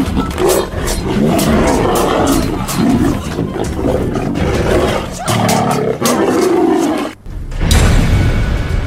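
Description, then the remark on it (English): A tiger roars and snarls ferociously, loud and continuous, with repeated guttural bursts as it fends off two attackers while being pushed back, then a brief break before one last roar. “But Li launched herself in on the left, and the tiger was now fending both of them off, being pushed back ever further.”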